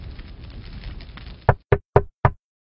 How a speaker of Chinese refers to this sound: 敲开门，里面的孩子惊声叫道：“ 妈妈，快看，雪人来我们家做客啦！”